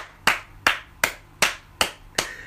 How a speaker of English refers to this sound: I think our white friends deserve a round of applause